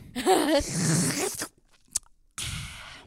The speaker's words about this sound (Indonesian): Nah, seperti yang Pak Lurah minum saat ini, nah, kopi. Saya tak nyeruput sih kayak.